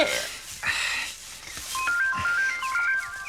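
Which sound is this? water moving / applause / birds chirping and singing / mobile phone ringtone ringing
mobile phone ringtone ringing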